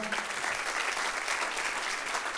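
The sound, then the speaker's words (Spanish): Steady audience applause for the Lord after a closing prayer, a dense wash of many hands clapping at an even level throughout with no pauses or individual claps standing out. “Denle un aplauso bien fuerte a su Señor.”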